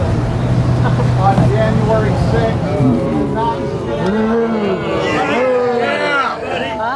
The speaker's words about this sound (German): und wird dafür ausgebuht.